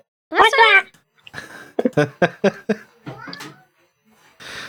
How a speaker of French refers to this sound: Je sais pas si t'as entendu, mais il y a mon chat qui a parlé au même moment. Oh non, j'ai ah, pas entendu du tout.